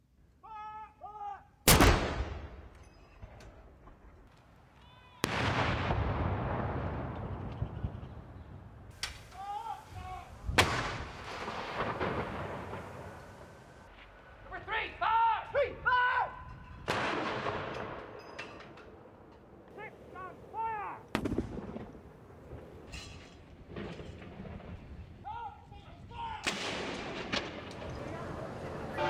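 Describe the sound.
Booming cannon blasts of a gun salute in Britain, fired to mark the death of Queen Elizabeth II, one after another at steady intervals, each crack rolling into a long echo, with faint voices and crowd sounds in between.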